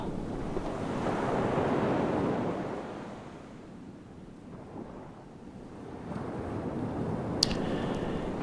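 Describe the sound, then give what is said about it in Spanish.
Ocean waves wash onto a shore in broad, rolling surges, swelling loud around the first few seconds, easing, then building again, with a steady wind rush throughout and no voices. “Escucha el mar.”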